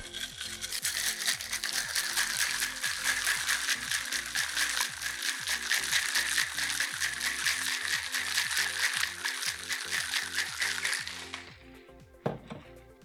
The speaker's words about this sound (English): And then what we're going to do is we're going to get the lid on the shaker. We're going to shake for about 10 seconds or so.